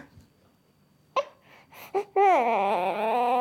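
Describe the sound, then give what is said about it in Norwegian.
A baby fusses: a few short whimpers and breathy sounds, then a long, loud, wavering cry that rises into a sustained wail. “Ja, jeg mener jeg er enig. Det er enig. Det er røft å være baby.”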